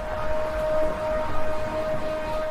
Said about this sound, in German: Eine Sirene kündigt in Jerusalem am Freitagabend den Beginn des Schabbat an.